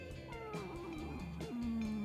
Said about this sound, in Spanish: La gata dice no.